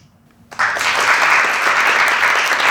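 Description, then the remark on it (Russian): Audience applause bursts in after a brief quiet moment, a dense, steady wash of many hands clapping that stays loud and even until the end. “Поаплодируйте, а кто из вас учится?”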